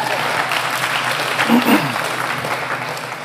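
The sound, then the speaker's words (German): A crowd applauds steadily, a dense wash of clapping that swells slightly midway, with voices and cheers mixed into the noise. “Wirklich, gebt denen einen Applaus, wirklich.”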